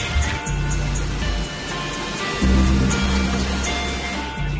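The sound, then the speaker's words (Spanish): Steady rushing of a polluted river's flowing water fills the scene, a continuous broad hiss with a low rumbling undertone that swells slightly partway through, with no voices. “El ritual significa agradecerle al río, adentrarnos a él, porque también si o no, con toda esta contaminación está sufriendo.”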